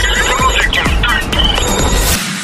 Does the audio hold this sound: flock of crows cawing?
no